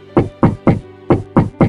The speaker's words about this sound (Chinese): 当她掀起棉被，刚要躺下，突然响起了一阵急促的敲门声。